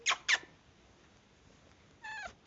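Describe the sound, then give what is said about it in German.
A cat gives two short, quick chirping mews, then after a pause a longer, falling meow. The sounds are soft, with no talking. “Ich würde sagen, wir laufen jetzt mal zur Katze und gucken, ob sie uns vielleicht anmiaut.”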